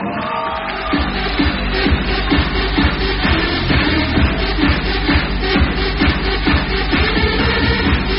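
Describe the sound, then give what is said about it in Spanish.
An audience breaks into steady, loud applause lasting several seconds, a dense wash of clapping with a few whoops and cheers mixed in and no talking over it. “Muy bien, aplauso por eso.”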